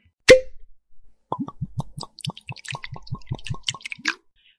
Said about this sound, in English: We need to pour. We need to pour out dram number two, and talk about where we're going to drink it.